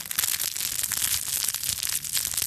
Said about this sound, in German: Achtung, so hört sich der Knisterelefant an.